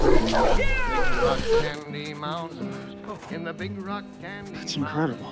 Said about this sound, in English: No, I meant the cat. It's like nobody's seen a cat before.